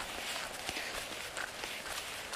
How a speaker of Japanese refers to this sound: ま帰り道と言いつつですね今歩いてるのはその透明のバス停に向かって、えー、歩いてる感じなんですよね